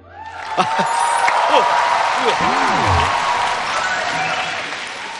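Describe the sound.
A crowd applauds loudly and steadily for several seconds, dense clapping filling the space, with a few cheering voices rising above it before it gradually tapers off.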